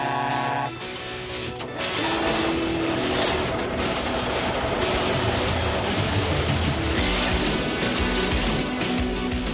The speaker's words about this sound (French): Allez, chauffe le camion podcastique, Marcel, chauffe.